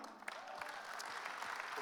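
An audience breaks into steady clapping, a dense crackle of many hands that holds at an even level throughout, with no talking over it.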